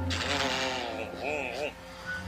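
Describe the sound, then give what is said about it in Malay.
A voice imitates a car engine cranking and trying to start, saying "Cik Cik Cik", a short run of sputtering, revving sounds, with a steady low hum underneath. “kalau tak boleh start aku memang nak terus lari lah tapi aku cuba juga lah start kereta Masuk dalam kereta aku start Cik Cik Cik”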